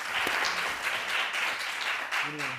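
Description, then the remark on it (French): Audience applause for two speakers at the end of a conference talk on AI, a dense, steady patter of many hands clapping at once, with a voice briefly rising over it near the end. “Je pense qu'on peut applaudir nos deux intervenants”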